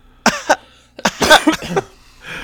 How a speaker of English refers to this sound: Now cough